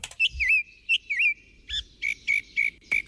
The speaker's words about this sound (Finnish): Et mulla on tässä, mä löysin YouTubesta siis, YouTubinkin on, on laulurastaan niin kuin tuotoksia no niin. on, on lisätty.